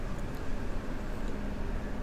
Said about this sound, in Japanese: 窓が全開なのであのちょっと交通量が結構多い道路に面してるのですごくうるさい音が入っちゃうかなっていうのがあるんですけれど